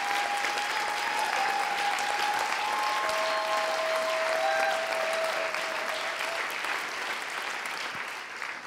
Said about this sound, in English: So I want you to give a massive round of applause for your pastors.